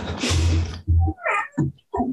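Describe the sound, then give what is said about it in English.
A pet cat named Jamie yawns: a long breathy exhale that opens into a squeaky, whining vocal stretch, followed by a couple of short chirping sounds. No one speaks. “oh, Jamie just yawned. Did you hear him?”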